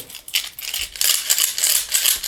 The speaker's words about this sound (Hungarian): Na, rázzuk egy kicsit a malacot.